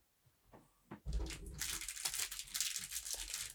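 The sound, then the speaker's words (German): A biodegradable plastic envelope crinkles and rustles loudly as it is torn open to draw a prize winner live, a sudden burst of crackling that continues unevenly for a few seconds after a quiet start. “Das, wir mussten auf einen Plastikumschlag wechseln.”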